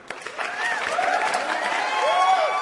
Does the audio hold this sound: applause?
yes